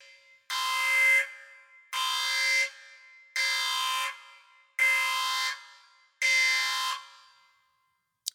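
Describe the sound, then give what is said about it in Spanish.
An alarm sound effect marking a spoiler warning blares in five evenly spaced, harsh electronic bursts, each lasting under a second with short gaps between, loud, with no talking over it. “Y ahora sí, vámonos con spoilers y aquí metemos una pequeña alarma.”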